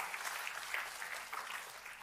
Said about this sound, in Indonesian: Tepuk tangannya boleh paling meriah buat Tuhan kita.